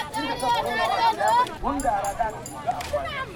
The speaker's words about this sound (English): You can hear a small seller of ice water, shouts harieno, which means fresh water, and also pure water. And he sells the water in small plastic bags. This is Turaku, one of the many markets of Niamey.